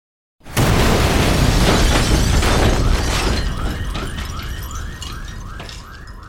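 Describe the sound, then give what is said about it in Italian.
A massive bomb blast from a Fiat 126 loaded with 75 kg of TNT, set off by remote control outside a magistrate's home at 8 a.m. on 29 July 1983, erupts suddenly and roars on with rumbling debris, then a car alarm begins wailing in repeating rising sweeps as the noise slowly fades. “È carica di tritolo, 75 kg di tritolo. Giovanni Brusca, lo scanna cristiani, aziona il telecomando. L'esplosione è devastante.”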